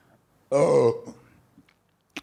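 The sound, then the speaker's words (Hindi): A single loud, throaty burp after drinking something on a dare rumbles out for about half a second, followed by quiet breathy rustling and a short click near the end. “छी यार डकार सुनेंगे लोग”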